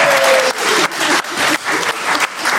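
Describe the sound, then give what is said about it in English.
A crowd bursts into steady, loud applause for the winning quiz team Morlock Stock and Barrel, who scored 1,206 points, a dense wash of many hands clapping that swells and dips slightly in waves without any voices over it. “Round of applause, Morlock Stock and Barrel!”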